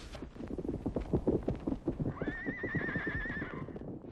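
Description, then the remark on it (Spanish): Hooves of carriage horses clip-clop in a quick, steady rhythm, fairly loud, then a horse lets out a long, wavering whinny that rises over the hoofbeats before fading, as the driver shakes the reins and the horses turn the carriage around. “Y sin decir una palabra, sacudió las riendas. Los caballos dieron vuelta”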